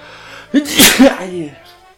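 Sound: sneeze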